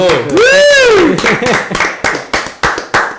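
A short burst of applause: a loud, rising-and-falling vocal whoop gives way to about seven or eight sharp, fairly regular claps, each one crisp and quickly decaying.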